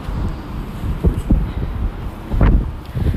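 Heavy wind buffets a phone microphone outdoors in Asakusa on a sunny day while the person walks, a continuous low rumble with sharper gusts bursting through around the middle and again near the end, loud with no voices.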